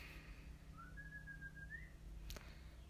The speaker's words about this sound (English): That's my mom whistling at my dog. And that's my mom telling her to come on. Also known as my mom preparing to go for a walk with her.